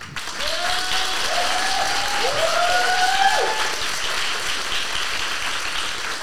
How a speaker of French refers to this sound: Alors, c'est un enregistrement en public. Vous êtes les premiers à passer. Vous n'avez eu que deux jours pour vous préparer à cette émission. Alors, je crois qu'on peut euh, vous applaudir au moins pour ça.